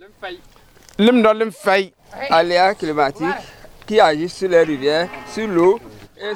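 Several cows moo one after another, their long, wavering calls overlapping in a steady, loud chorus with only brief pauses between them.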